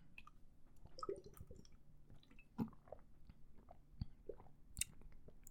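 Quiet gulping as someone drinks water, a few irregular wet swallows with small mouth clicks and squishes spread over several seconds, no talking.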